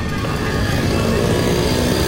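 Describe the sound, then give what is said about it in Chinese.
A saxophone plays a sustained melody by the roadside on a street, its notes partly buried under a steady roar of many passing motorbikes and car traffic. “好，接下来呢，那个我们来听一段，这个是我录到在街上的声音，好，也是音乐，但是萨克斯风。”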